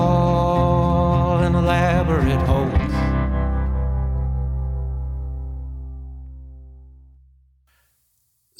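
A song ends on a loud, distorted sustained chord with wavering effects, then rings out and fades slowly to silence over several seconds.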